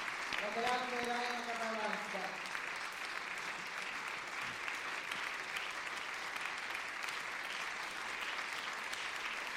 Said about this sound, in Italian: Sta salendo ora le scalette laterali del palcoscenico. Ecco. Ed eccola sul palcoscenico, accolta dall'applauso.